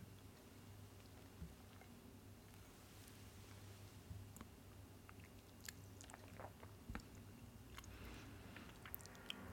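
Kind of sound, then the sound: food or drink, sipping whisky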